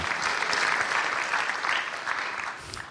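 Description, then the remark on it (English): Steady applause from an audience during a church sermon, clapping for God: a dense wash of many hands clapping at a moderate level without pause, with no voices standing out. “Yes, you may clap for God.”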